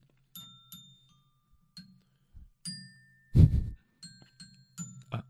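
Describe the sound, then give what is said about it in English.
Single bright electronic keyboard notes are picked out slowly and unevenly by someone trying to figure out a song on the keys, about ten in all, each with a soft key thump. Partway through comes a brief louder thud. “looking at the keys like to figure it out.”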